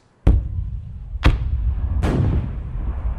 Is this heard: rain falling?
no